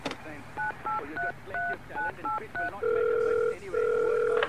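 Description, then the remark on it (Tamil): A mobile phone number is dialed to call the Bihar Association: about eight short, evenly spaced two-tone keypad beeps, followed by two long, steady ringing tones as the call connects. “சரி பீகார் அசோசியேஷனுக்கு போன் போடு மச்சி லைன் போகுது எடுக்க மாட்டேங்கிறாங்கடா இரு என் மொபைல நான் ட்ரை பண்றேன்”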